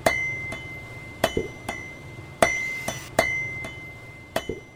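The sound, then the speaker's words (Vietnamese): A blacksmith's hammer strikes an anvil at a coal forge in Vietnam, sharp metallic blows in a steady, repeating rhythm, each strike leaving a bright sustained ring. The series of blows is a traditional ritual to open the forging trade for the year. No voices present. “tức là người ta đốt một cái bể than sau đó thì người ta lấy một cái búa gõ lên trên cái mặt đè gõ thành một hồi vừa là mở nghề vừa là mong muốn là quanh năm ngày tháng thì cái tiếng uh, búa mà gõ trên cái đe đấy nó đều đã nghĩa là có việc quanh năm”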